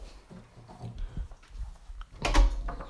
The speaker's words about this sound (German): Äh, sorry, ich muss kurz meine Tür zumachen.